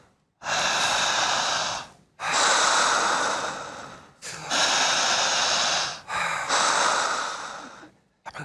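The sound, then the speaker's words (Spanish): Forceful breaths drawn hard through the mouth only, with eyes closed, in a relaxation breathing exercise, loud, in four long rhythmic pulls separated by brief pauses, with no talking over them. “Jalando el aire con fuerza, con intensidad, con la misma dinámica.”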